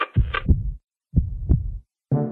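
Two deep, booming heartbeats, each a close double thump in a slow lub-dub rhythm separated by a short silence, followed by the start of a sustained tonal sound.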